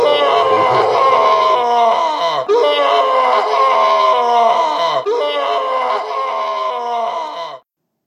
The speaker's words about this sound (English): the sounds of her captor's screams were impossible to shut out as they echoed through the dungeon.